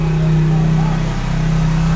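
A loud, steady engine drone from a bus passing by outside, rumbling low and constant for the whole two seconds.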